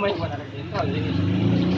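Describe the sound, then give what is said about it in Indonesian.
A car passes by in the rain, its steady low engine drone and tyre rumble filling the moment at a fairly loud level, with a brief swell partway through. “nih anak jenderal lewat lagi”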